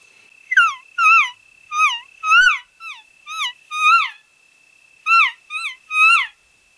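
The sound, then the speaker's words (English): A series of imitated elk calf mews, about nine short, high, nasal squealing calls in two quick bursts, each bending downward, fairly loud with no talking. “I'm the kid at the park. And I just calf sound. Calf sounds. Hit him with calf sounds.”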